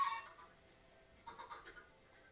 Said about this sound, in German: Ich höre gerade ein paar Hühner.